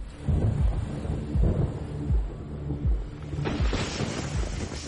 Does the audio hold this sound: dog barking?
no